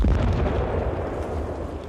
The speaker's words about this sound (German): Schon der Beginn dieser Schlacht verläuft überraschend an diesem Morgen in der Bucht von Manila, wo die amerikanische Kriegsmarine liegt. Das fällt auch einem Offizier an Bord der USS Petrel auf, die das Feuer auf die Festung San Antonio eröffnet.